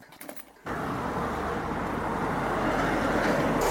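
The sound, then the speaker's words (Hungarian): At a bus station, a loud, steady rumble of buses with a deep low-end drone kicks in after a brief quieter moment with a few faint clatters, like idling engines. “Mert meg is Aha, nézzük ezt a igen. buszt pályaudvaron.”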